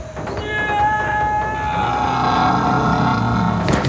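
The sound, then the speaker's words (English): A person lets out a loud, sustained angry scream, a roar-like yell called a rhino roar, held steadily for nearly four seconds without a break, forceful, letting out pent-up anger and frustration. “is that is that your rhino roar?”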